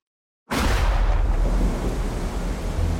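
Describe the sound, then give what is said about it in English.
After a brief silence, a loud rumble of thunder rolls in abruptly, deep and sustained, with a steady wash of rain-like hiss running through the rest of the storm. “It was a cold and rainy night when someone dropped that package through my mailbox.”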